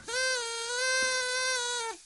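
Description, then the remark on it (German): One long, steady party horn toot, a bright buzzy tone held at an even pitch for nearly two seconds before it sags and cuts off. No voices are heard. “Na, kannst du sie noch hören, die Tröte, ja, oder ist schon genug?”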